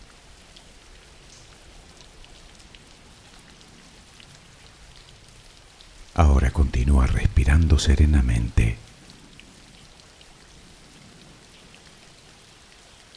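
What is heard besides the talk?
rain falling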